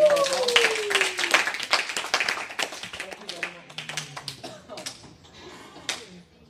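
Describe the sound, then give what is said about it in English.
An audience at an event applauds the IT graduates with a dense, irregular patter of many hands clapping, loudest at the start and gradually thinning out, with voices cheering and calling out through the applause. “Let's give uh, the graduates”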